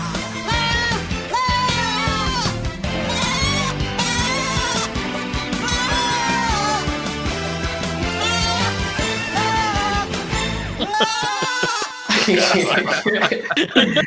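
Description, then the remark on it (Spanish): Quavering, goat-like bleats ring out repeatedly over loud, busy music with a steady beat, filling nearly the whole stretch before a brief noisy burst near the end. “La cabra, la cabra regresa.”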